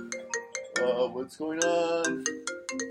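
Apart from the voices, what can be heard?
mobile phone ringtone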